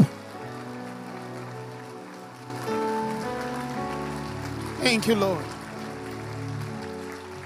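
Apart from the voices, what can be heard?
audience clapping hands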